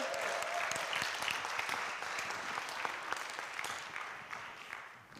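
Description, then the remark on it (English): An audience breaks into sustained hand-clap applause, a dense, steady patter of many hands that holds at an even, fairly loud level for several seconds with no talking. “Oh, give him a hand clap, everybody.”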